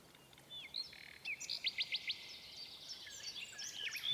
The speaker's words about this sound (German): Da klang auf einmal vom Fenster her der herrlichste Gesang. Es war die kleine lebendige Nachtigall, die auf einem Zweige draußen saß. Sie hatte von der Not ihres Kaisers gehört und war deshalb gekommen, ihm Trost und Hoffnung zu singen.